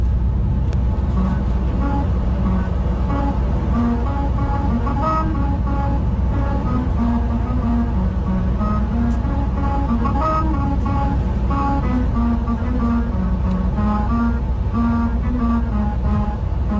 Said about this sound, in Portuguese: há uma estrada na Hungria que dá música, mas os automobilistas só ouvem música se não ultrapassarem os 80 km hora